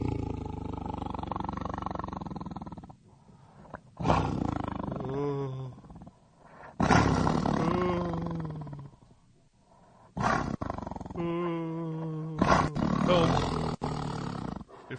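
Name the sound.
tiger roaring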